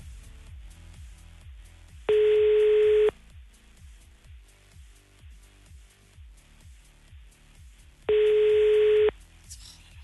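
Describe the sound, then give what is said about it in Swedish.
An outgoing phone call's ringing tone, a call placed to someone who got in touch for help paying a bill: two loud, steady mid-pitched beeps, each about a second long, separated by roughly five seconds of quiet with faint low rhythmic ticking in the background. “Gör inte det så ringer vi till någon annan.”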